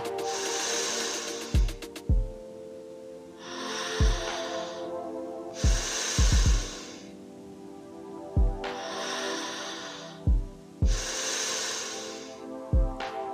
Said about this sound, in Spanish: Inhala, exhala, hacia adentro y hacia afuera. Simplemente sigue con el flow de la respiración.